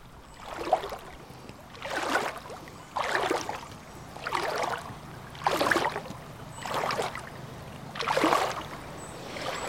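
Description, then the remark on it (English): Water of the Ovens River sloshes and swirls in steady surges about every second, like someone wading slowly through the current, over a low continuous flowing background, with no voices. “I'm back in the Ovens River, a little further upstream.”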